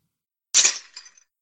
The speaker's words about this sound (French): vous allez jouer une note demporte pièce à gâteau.